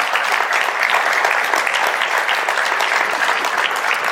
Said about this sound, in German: Wir haben zum einen Track am Dienstag. Einen Applaus für Track am Dienstag.